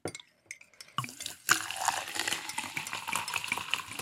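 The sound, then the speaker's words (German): Sparkling mineral water containing 600 milligrams of calcium is poured from a 0.75-litre bottle into a glass, starting with a few clinks, then a steady gurgle and a dense fizzing crackle of bubbles. “Also ich halte jetzt mit meinem Einschenken dagegen. Das ist eine 0,75 Liter Flasche mhm.”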